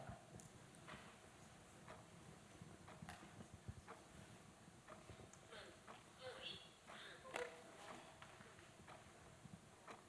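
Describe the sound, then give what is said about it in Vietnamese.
A clock ticks softly in a slow, steady rhythm of sharp clicks, heard over a quiet hum with faint murmuring in the background. “bây giờ mình thở theo cái tiếng ờ, tiếng đồng hồ mình thở vô có thể là hai hai giây hay ba giây thở ra bốn hay năm tùy theo mình”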